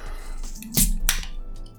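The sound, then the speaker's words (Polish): A wire-caged cork pops out of a capped bottle filled right up to the cap: a sharp burst of release, then a second quick pop-like hiss a moment later, with no talking. “Okej, okay, pykło, nie ucieka.”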